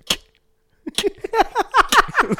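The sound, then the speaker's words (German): A single sharp click, a brief pause, then a voice imitating an older generation's hard, heavy keyboard typing, with a rapid, uneven string of loud, percussive mouth clacks. “Wenn eine ältere Generation auf die Tastatur haut, ist es.”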